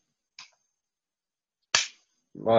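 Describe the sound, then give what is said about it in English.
Two sharp, cracking shots from a Webley revolver about a second and a half apart, the first quieter and the second louder, with a brief voice starting right at the end. “Is that a Webley?”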